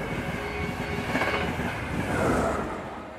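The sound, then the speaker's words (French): A train rumbles steadily along the rails with a dense, continuous mechanical roar, swelling slightly louder toward the end. No voices are heard over it. “Il s'étonna de voir son fils trempé et l'entraîna rapidement vers le train.”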